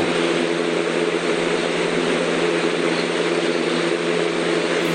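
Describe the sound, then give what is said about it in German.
A steady, loud fan whirring without pause, a constant airy rush layered over a low droning hum with a faint mechanical tone, unchanging throughout and with no voices. “ist ja, glaube ich, für mich klingt das so wie ein Ventilator.”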